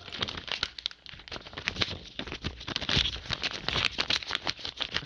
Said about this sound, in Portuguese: vai sortear aqui no papelzinho a moda antiga. Então vamos lá, colocamos o nome dos concorrentes aí na nossa Tem caixinha tá mágica.